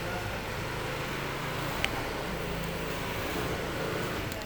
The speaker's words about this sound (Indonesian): karena suasana kampus banyak suara-suara yang akan menghibur kalian suara motor